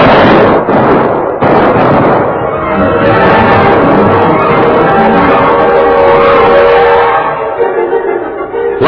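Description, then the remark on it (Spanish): A loud, sustained volley of rifle fire from six soldiers, many shots overlapping into a dense crackling roar for about nine seconds, with a few sharper bursts near the start and no voices. “Tobar se tendió pecho a tierra como se lo había ordenado Porfirio, y las balas de las descargas de los soldados pasaron arriba de su cuerpo sin tocarla.”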